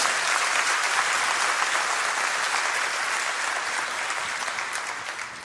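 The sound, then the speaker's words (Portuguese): An audience claps steadily, a dense, sustained wash of many hands with no clear individual beats, holding strong throughout and easing off slightly toward the end. No one speaks. “Pode ser mais as suas palmas.”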